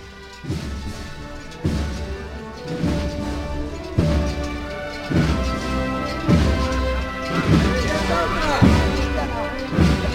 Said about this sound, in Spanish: escuchado las campanitas del cielo, ¿verdad? Esas bellotas chocando contra los varales.